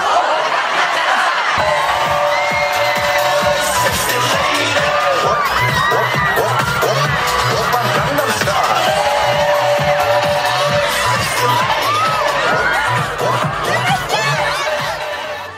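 A large crowd at an event abroad cheers and shouts continuously, with excited screams and scattered laughter over a steady rhythmic thump of music underneath, loud and sustained throughout.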